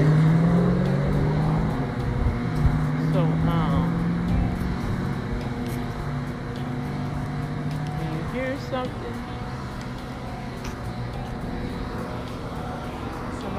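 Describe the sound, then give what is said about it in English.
Heavy bus engines rumble steadily with a low droning hum and some rising revs as buses pass outside, while a person speaks briefly over the traffic noise. “I don't like how they have these buses, man. These buses all sprayed it out.”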